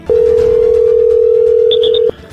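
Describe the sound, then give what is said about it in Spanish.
A steady, loud telephone dial tone holds a single mid pitch for about two seconds as a call is placed during a phone game. A few short higher beeps chirp near the end before it cuts off abruptly. “está marcando, señoras y señores, en este momento.”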